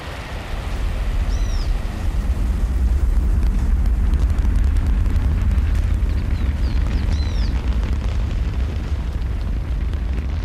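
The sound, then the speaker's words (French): An Ariane 5 rocket ignites and lifts off from Kourou on its inaugural flight, VA 501; the launch roar rumbles continuously, a deep, powerful low-end thunder swelling in after the first second and holding steady, with a few faint high chirps drifting above it. “On voit Ariane qui s'élève, elle est, suivie par le télescope de l'île Royale, vous savez, les îles du salut.”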